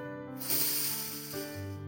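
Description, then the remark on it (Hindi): A pressure cooker whistle, with dal cooking inside, lets out a loud, breathy hiss of steam for about a second, then fades, while steady low musical tones hum underneath throughout. “वो कुकर की सीटी से आती दाल की खुशबू”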